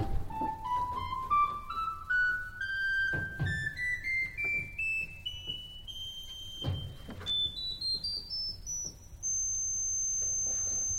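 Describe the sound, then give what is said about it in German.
Pipe organ notes climb step by step in a steady ascending scale to the organ's highest notes, reached by changing registers, ending on a piercing, sustained very high tone from a tiny pipe, with soft mechanical thumps and clicks underneath. “Und jetzt gehe ich hoch zu den allerhöchsten Tönen.”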